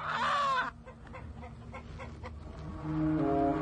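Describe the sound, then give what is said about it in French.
A rooster, held ready for a contest, lets out a loud, harmonic squawk, then keeps clucking and muttering in short bursts, ending with a steadier, drawn-out call. “J'ai mon coq là qui est prêt.”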